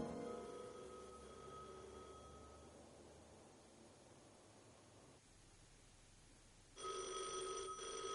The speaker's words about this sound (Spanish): Al amanecer, el teléfono del convento suena en un despacho.